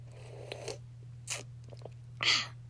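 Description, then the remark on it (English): Someone takes a sip of a drink: soft mouth noises, a quick slurp, then a breathy, satisfied exhale, all over a steady low electrical hum with no talking. “Let me take another sip.”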